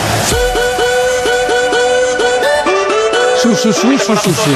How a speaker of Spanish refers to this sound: He encontrado un su navideño. Un DJ ha hecho un su convertido en una canción de Navidad. Es terrible. Suena así.